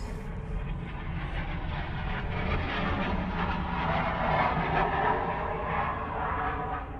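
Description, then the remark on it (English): A large transport plane heading to Edwards Air Force Base flies low overhead on a different flight pattern, its heavy engine roar loud, deep and steady throughout, swelling slightly midway, with no voices. “And then, if you heard that, that was a transport plane of some sort from heading to Edwards Air Force Base.”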